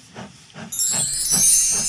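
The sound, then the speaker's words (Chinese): A steam train chuffs in a steady, low rhythm of about five puffs, and a loud, bright hiss of steam breaks in partway through and continues over the chugging. “瞧，我的火车开来了，噗噗噗，白色的蒸汽升到了半空。”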